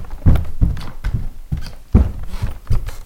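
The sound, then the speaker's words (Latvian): Footsteps on a creaking wooden floor: a series of about seven dull, low thuds in an uneven walking rhythm, moderately loud, with no voices. “Šeit ir čīkstīga grīda.”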